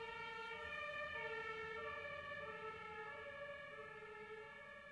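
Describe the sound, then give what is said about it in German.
A wailing siren of a fire engine or ambulance sounds steadily with rising and falling tones outside in Frankfurt during heavy rain, fairly loud and continuous over a low rumble of traffic, with no one speaking. “Ja, bei mir ist die Feuerwehr oder der Krankenwagen.”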